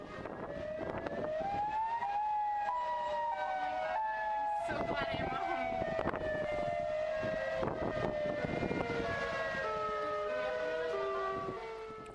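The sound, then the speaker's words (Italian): A loud, sustained tornado warning siren wails steadily across a city for the whole stretch, its pitch rising and slowly falling, with a faint rumble of background noise underneath. “Queste sono sirene d'allarme che avvertono i cittadini di cercare immediatamente riparo, perché un tornado sta per colpire la città.”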